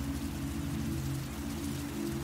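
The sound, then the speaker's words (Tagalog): Heavy rain pours down in a steady, dense hiss with no breaks, loud, over a low humming drone. “Sakalang tumigil ang panggagambala ng nilalang sa labas ng bahay nang bumuhos na ang malakas na ulan hindi na rin kami nakaluwas ni Mama.”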